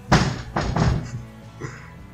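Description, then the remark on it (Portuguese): A door is pushed shut with a few heavy thuds in quick succession, followed by a softer knock as it settles, with no voices. “Fecha aí a porta”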